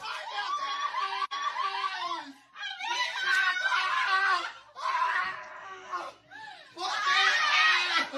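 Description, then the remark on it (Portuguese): Several people on a reality TV show scream and shout excitedly, celebrating a mother's return, in loud, high-pitched bursts, overlapping voices rising in four waves with brief dips between, intense, mixed with some laughter. “Gente, é grito atrás de grito, é né? Gritaria.”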